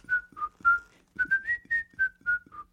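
A whistled melody of about ten clear, pure notes in two phrases, a short pause between them, the pitch stepping gently up and then back down, with a breathy edge under each note.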